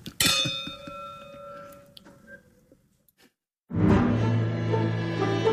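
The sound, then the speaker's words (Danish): Glasses clink together once in a bright, ringing toast, the tone fading over about two seconds before a short silence gives way to loud, full music. “Der er afsat en time. Skål.”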